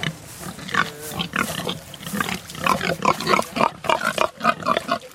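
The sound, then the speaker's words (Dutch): Pigs on a farm, belonging to the vegetarian brand Vivera, grunting and snorting, a dense overlapping chorus of short, rough calls repeating steadily throughout with no voices. “zijn die varkens ook van jou?”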